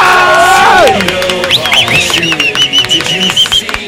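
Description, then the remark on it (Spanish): A loud crowd cheers and whoops while sharp, rapid hand claps rattle through, voices rising and overlapping in an excited burst of applause. “¡Más fuerte, perro! ¡Lo apláudale!”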